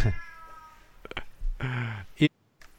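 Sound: cat meowing and yowling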